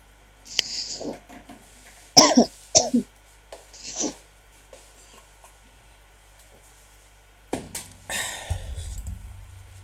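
A person coughs and clears their throat several times in short, harsh bursts, followed by some rustling and a low rumbling noise near the end. No speech is heard.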